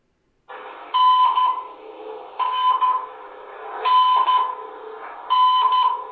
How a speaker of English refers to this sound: That's the Morse code for the letter N.